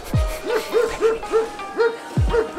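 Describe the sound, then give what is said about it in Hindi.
A quick, steady run of high, yappy barks from dogs running back and forth in a local market in China, about a dozen in under three seconds, fairly loud, with a couple of low thuds in the background. “इसमें से कोई साइकिल पे मुर्गी ले जा रहा है कुत्ते इधर से उधर दौड़ रहे हैं”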